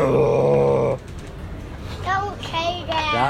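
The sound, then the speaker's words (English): A voice imitates a foghorn: one loud, low, steady droning hum lasting about a second, then quieter rising, squeaky vocal sounds follow. “And pretty soon, the foghorn started a, a blowing.”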